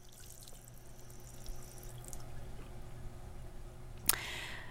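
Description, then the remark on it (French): Downloaded bathroom soundscape recording: quiet ambience with a low steady hum and faint trickling water, then a sharp click near the end followed by a brighter, hissing rush of running water. “Là, je veux juste vous dire, euh, by the way, que l'espèce de d'enregistrement de salle de bain que j'ai mis en background, ben c'est pas un son qu'il y avait dans mon cellulaire.”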